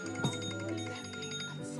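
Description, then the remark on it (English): A phone alarm rings out in bright, sustained electronic tones, playing continuously at a moderate, even volume. “that was my alarm because we have to go to flight, okay.”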